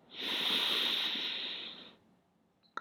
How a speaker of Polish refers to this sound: zacznij po prostu oddychać nosem. Bierzesz głęboki wdech nosem